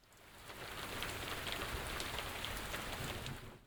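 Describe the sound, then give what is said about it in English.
A steady, dense hiss of grains poured through built tubes in a theatrical device imitating rain: a soft continuous patter with faint sharper ticks, fading in and out over a few seconds with no voices. “as do devices for imitating rain, which include pouring various materials through cunningly built tubes. Apparently, rice suggested a nice soft curtain of rain, whereas chickpeas gave a harder clatter, something closer to hail, perhaps.”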